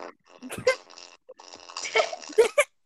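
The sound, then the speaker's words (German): A goofy 20-minute song made of buzzy, fart-like blurts and squeaky tones, bursting out in quick irregular phrases at a steady volume. “Es hört sich an den Furz, dieses Lied.”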